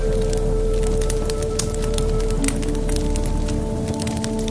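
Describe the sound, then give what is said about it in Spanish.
A fireplace fire in a cabin crackles steadily, with frequent sharp pops and snaps scattered over a constant low rumble and a soft sustained tone, fairly loud, with no one speaking. “Si quieren, pueden estar en una cabaña sintiendo en su rostro o manos el calor de una chimenea, escuchando el arder del fuego.”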